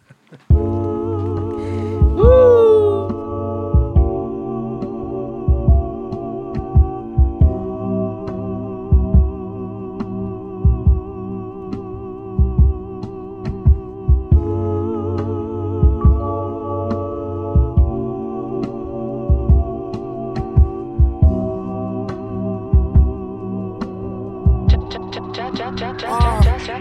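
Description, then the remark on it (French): A rap track plays with a deep, throbbing bass beat that pulses steadily under sustained droning tones, loud and continuous, with a rising swept sound near the end. “Si, si- si- si ça c'est pas du rap, je sais plus ce que c'est que du rap.”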